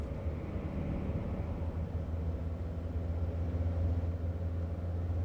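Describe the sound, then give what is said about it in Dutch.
Steady, low droning rumble of a car cabin while driving on a highway, constant engine and road noise filling the space with no breaks or talking. “Nu zitten we in de auto, dat wilde je toch? Jij zei: laten we een stuk gaan rijden.”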